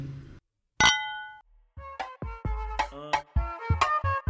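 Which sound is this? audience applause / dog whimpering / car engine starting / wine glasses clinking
wine glasses clinking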